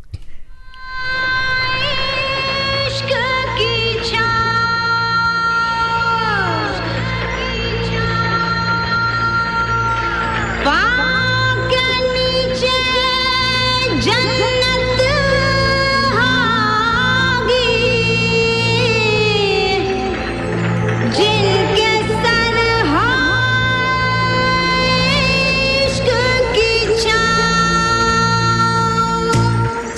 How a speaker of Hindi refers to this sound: सुनिए आप लोगों ने अभी ये सॉन्ग गेस कर ही लिया होगा अगर आप गाड़ी चला रहे हैं तो धूमधाम से एंजॉय कर लीजिए पर हाँ ध्यान रस्ते पे हो